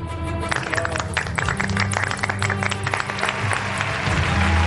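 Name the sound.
applause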